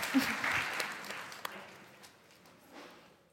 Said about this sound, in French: Euh, on applaudit, oui. Merci.